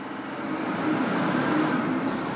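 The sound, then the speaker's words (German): A crane arm grabs a container off a truck and lifts it onto a railway wagon at a freight transfer terminal, its heavy motor droning in a steady, fairly loud rumble with no voices. “Ein Kranarm greift sich einen Container von einem LKW und hieft ihn auf einen Eisenbahnwaggon.”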